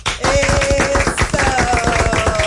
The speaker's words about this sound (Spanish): Aplausos.